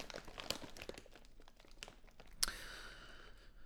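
A bag crinkles softly as it is handled, irregular rustles and crackles spread across a few seconds with one sharper crunch partway through, fairly quiet, with no talking.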